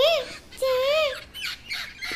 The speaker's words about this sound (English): Shall we now go and see the parrots? Yes, yes, even I love parrots. Look, such colorful parrots and so much noise.